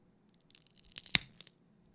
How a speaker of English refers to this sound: Sickening, right? So what was it? Did I smack my femur with a hammer to get that sound? Of course not. I just snapped a crisp, fresh piece of celery in half.